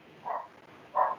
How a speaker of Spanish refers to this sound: perdón por el perro, esperen.